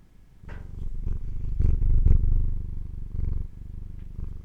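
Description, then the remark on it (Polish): A cat purrs steadily in a low, rumbling drone, with soft rhythmic pulses as it breathes in and out. No one talks over it. “A na przykład teraz, jak będziesz cicho, to wszyscy usłyszą, jak migi myczy.”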